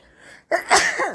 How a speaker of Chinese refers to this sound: 我不是我不是就打了一个喷嚏哦